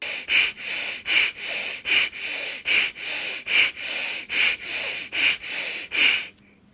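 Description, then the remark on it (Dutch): Rapid, forceful breathing in and out through the nose as a breathing exercise, the abdominal muscles pulled toward the back on each exhale; about a dozen sharp hissing pulses in a steady quick rhythm, each breath clear and strong, ending abruptly into near silence. “je gaat snel in en uitademen door de neus.”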